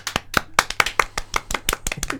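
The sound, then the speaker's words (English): A few people clap together in a brief, uneven patter of sharp hand claps welcoming a guest, with no one speaking. “I love the applause though. It sounds really good when you listen back.”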